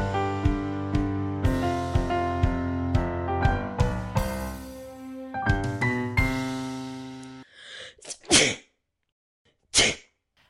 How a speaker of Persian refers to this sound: اگه به خاطر این عطسه که کردم میگی ربطی به سرمایه هوا نداره الان داشتم سیب زمین سرخ کرده میخوردم روشم سس فلفلی تون ریخته بودم به خاطر فلفل عکسم گرفت